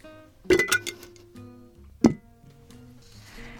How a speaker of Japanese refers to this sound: ではこちらも今日もこのコースターをガラスの瓶に入れて大事に保管したいと思います。